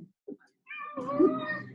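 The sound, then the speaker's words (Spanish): A cat lets out a long, wavering meow, its bending pitch shaped almost like the spoken Spanish words "me ahogo" ("I'm drowning"), preceded by a couple of brief soft sounds. “A ver, el gato que dice me ahogo.”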